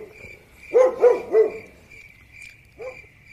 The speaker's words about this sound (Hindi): अचानक से आवाज और तेज हुई और कुत्ते की रोने की आवाज सुनाई थी एक बार सब डर के मारे कांप उठे आवाज कुत्ते की और भयानक हुई चारों तरफ कुत्ते भौंकने लगे